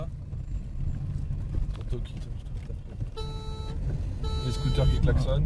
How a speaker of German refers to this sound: Die Mopeds hupen, haben Sie gesehen? Er hat ein Walkie-Talkie und kündigt uns an.